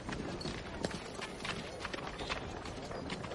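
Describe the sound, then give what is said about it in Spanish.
Steady clip-clop of a horse's hooves walking at an unhurried pace as the horse, carrying a corpse, is led by its reins; repeated soft knocks over a faint noisy background, with no voices. “Tira de las riendas del caballo que carga con el cadáver de Brom.”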